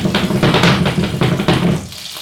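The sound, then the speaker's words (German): Padrón peppers sizzling in hot olive oil on a stove turned down low, being fried all around until lightly browned: a loud, steady crackling hiss that surges in a few bursts, as if the pan is being shaken, then eases off near the end. No one speaks. “Ja, und dann die Paprika so rundum anbraten, bis sie so leicht schon Farbe annehmen.”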